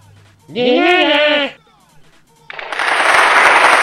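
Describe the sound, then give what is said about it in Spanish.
A wavering, bleat-like cry lasting about a second, then after a short pause a loud, steady wash of applause for a recited poem about teachers that continues to the end. “Los mejores maestros, Aplausos, por favor.”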